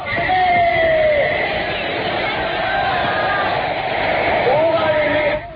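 A huge crowd of young Red Guards in the Chinese capital cheers and shouts before Chairman Mao at Tiananmen Square in one continuous, loud roar, with a thin whistling tone that rises and falls above the din.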